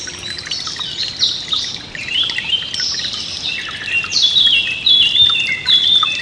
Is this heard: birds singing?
yes